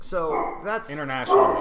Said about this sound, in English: That is my dog Achilles barking.